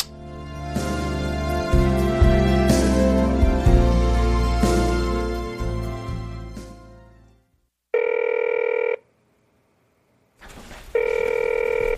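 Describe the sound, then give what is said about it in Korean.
A full band of music plays, then fades out, followed by two steady electronic telephone ring bursts separated by a short silence, as a call to a mother goes unanswered. “전화를 받을 수 없어 수리송으로 연결 중입니다. 엄마, 전화 좀 받아요, 좀.”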